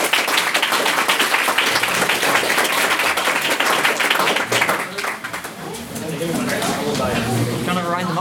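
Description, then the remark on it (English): Dense, loud applause from a debate audience for the speakers, chair and co-host, many hands clapping in a steady roar that fades after a few seconds into murmuring voices and scattered claps. “Another applause, and we'll head on to the bar.”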